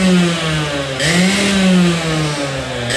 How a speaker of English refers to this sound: and there's the go-karts. Oh yeah, come on.